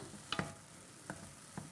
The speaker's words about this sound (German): Jetzt schaue ich mal wieder zu meinen Champignons, was die da in der Pfanne so treiben. Ah ja, dann schaut mal.